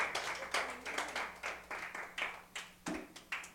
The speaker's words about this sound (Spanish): Vale la ofrenda de palmas al Señor si quiere aplaudirle, pues. Hágalo con fe, no con face, con fe.